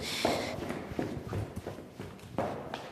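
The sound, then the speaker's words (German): Footsteps thud down a flight of stairs at an uneven pace as someone hurries down, several fairly loud impacts with a few scuffs between them, over a faint background hiss. “Okay, Treppen runter, los, los, los.”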